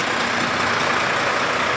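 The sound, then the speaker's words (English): A road resurfacing truck sprays tarmac on a road, a loud, steady hissing roar with a heavy engine rumble beneath it that fills the whole moment without letting up. “And I rely on my hearing to know when cars are coming, but obviously I can't do that because the noise from the, whatever the vehicles are called that spray tarmac all over the place, it's too loud”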